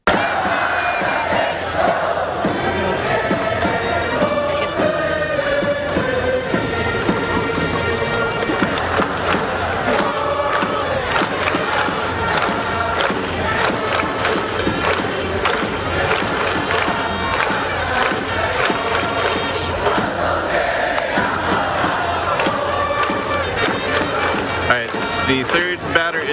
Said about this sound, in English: Yamada, and the cheering section has a song that goes Yamada Hito. That was indeed glorious.